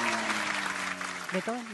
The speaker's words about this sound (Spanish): Este, hicieron la muestra de los alumnos del trial. Tremenda muestra se mandó el profe. Fuerte el aplauso.